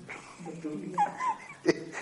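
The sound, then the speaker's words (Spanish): A dog gives a long, squeaky yawn, a thin rising-and-falling whine, followed by a short sharp click or smack near the end. The background is quiet. “está pegando un bostezo.”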